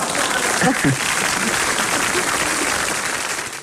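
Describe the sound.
Steady applause from a small group fills the whole stretch, dense clapping at a constant level with a brief voice murmuring early on.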